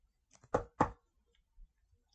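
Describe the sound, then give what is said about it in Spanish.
Two firm knocks on a boss's office door in quick succession, clear, preceded by a faint lighter tap, then quiet with no voices. “Llegas a la oficina, buscas a tu jefe, le tocas la puerta”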